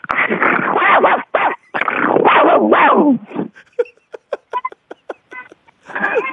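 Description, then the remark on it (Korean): A person imitates an angry dog, giving long snarling, growly bursts of barking, then a string of short sharp yips and barks, and a final gruff snarl. “어, 그렇게 개 화났을 때 짖는 소리도 해도 될까요?”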